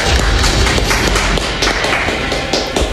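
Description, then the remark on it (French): A few seconds of steady, loud applause, with many overlapping claps forming a dense, crackling wash of sound and no voices. “Bravo. On l'applaudit.”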